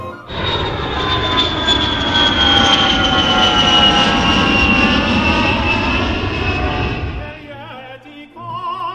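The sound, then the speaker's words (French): A loud airplane engine roars steadily, with a high whine that slowly drops in pitch, then fades abruptly near the end, leaving faint wavering noises. “Avion.”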